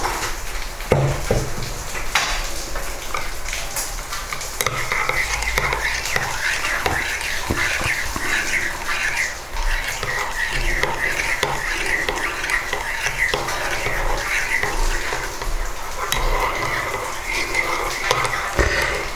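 Steady rain falls outdoors, a dense continuous patter and hiss that holds at an even level for the whole stretch, with no pauses or sudden gusts.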